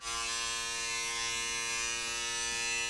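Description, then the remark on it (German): A hornet's wings drone in a loud, steady buzz, unbroken for the whole stretch, with a rich, raspy tone and no voices. “Mit den Flügeln Musik machen, das kann ich auch.”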